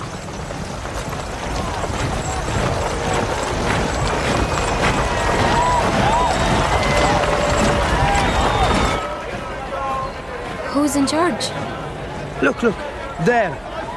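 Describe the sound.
Hooves of approaching riders, the Sultan on a white horse and his army, pound steadily under a loud, dense wash of crowd noise and shouting voices, then the din drops away, leaving a few scattered thuds and calls.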